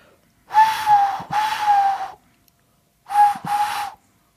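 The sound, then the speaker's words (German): Someone imitates a cuckoo with breathy, hooting whistles: two cuckoo calls, each a pair of notes, separated by a short pause. The sound is fairly loud, with no talking. “Ich kann so, so einen Kuckuck ein bisschen imitieren.”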